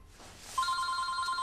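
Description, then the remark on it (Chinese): A telephone starts ringing partway through, a steady electronic bell tone with bright overtones that holds on without pause over faint background noise; the call is from the chairman. “嗯，董事长的电话。”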